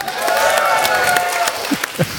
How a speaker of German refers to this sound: Hey. Cheers. Applaus für den!